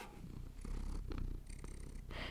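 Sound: cat purring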